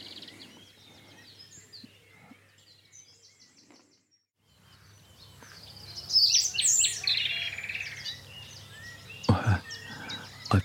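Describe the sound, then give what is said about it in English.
A nightingale sings right beside the listener on private land in Dorset, England, in a loud, rich burst of varied trills and whistles, with a second, fainter nightingale answering it earlier on, over a low steady background hum. “and a nightingale just trilled beside me. It's a little, and there's another one answering it.”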